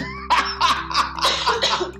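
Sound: cough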